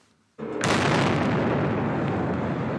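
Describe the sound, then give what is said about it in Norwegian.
After a brief near-silence, a single loud bomb explosion erupts abruptly near the finish area of the Boston Marathon in the USA as many runners were finishing; its blast gives way to a long, heavy roaring rumble that fills the rest of the moment. “Den første bomben gikk av like ved målområdet da mange mosjonsløpere var i ferd med å avslutte.”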